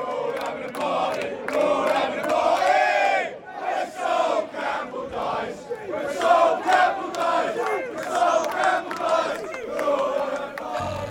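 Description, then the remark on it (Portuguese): A large crowd of Tottenham football fans chants a terrace song in unison, loud and sustained, with rhythmic swells of many voices singing together throughout. The song says they will throw a party when Sol Campbell, a former Tottenham player who moved to Arsenal, dies. “a mais pesada que eles cantavam muito é que. Falando que eles vão ter uma festa quando morrer o Soul Campbell”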